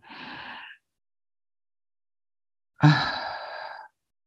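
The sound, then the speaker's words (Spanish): A breathy inhale is followed by a pause of about two seconds, then a louder, longer exhale released with a soft voiced sigh, with no other sound. “Si aún no, sigamos respirando una vez más.”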